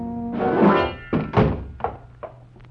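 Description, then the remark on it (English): A room door is kicked shut by a bald man holding a gun: a broad, heavy rush and thud, then several duller knocks and rattles that come quicker and fainter as it settles. No one speaks. “I backed into the room, and Baldy kicked the door shut.”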